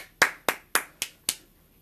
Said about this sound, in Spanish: Aplaudan.